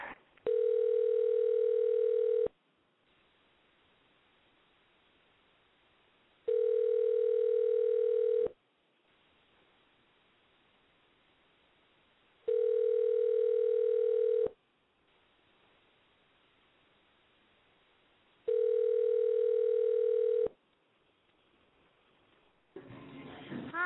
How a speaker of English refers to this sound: All right, we're calling my mom. Maybe she'll pick up the phone.